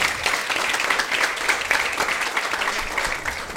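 Steady audience applause, a dense crackle of many hands clapping at an even loudness throughout, with no voices standing out above it.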